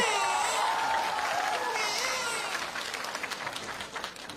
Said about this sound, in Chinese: 谁鼓掌呢？刚才谁鼓掌呢？我都这个样了，你们还鼓掌？你们再鼓一个试试！谢谢你们残酷的掌声。